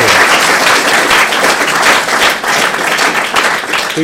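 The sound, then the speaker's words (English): An audience gives a round of applause for four presenters, many hands clapping steadily in a dense, loud wash of sound that holds for about four seconds without letting up. “Um, could we please have a big round of applause for our um, four presenters?”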